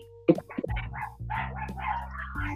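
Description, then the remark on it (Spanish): Dogs snarl and bark at each other in a scuffle, a steady growling that rises and shifts throughout with a sharp yelp near the start. “Esos perros se matan.”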